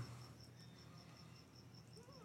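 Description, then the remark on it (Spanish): Crickets chirp in a steady, evenly spaced rhythm, a thin high trill repeating over a faint low hum. The chirping is soft and continuous, with no one talking. “Se escuchan los grillos.”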